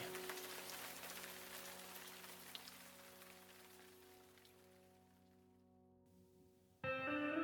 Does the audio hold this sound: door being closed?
no